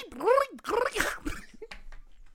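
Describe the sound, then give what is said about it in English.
A Foley artist vocally imitates a horse's hooves on tar instead of grass with a short run of uneven vocal clops and clicks, opening with a sliding voiced sound before the sounds thin out. “What if that horse was on tar instead of grass?”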